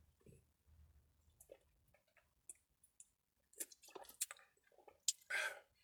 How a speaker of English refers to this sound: And I'll drink I'll drink a sip of water for that.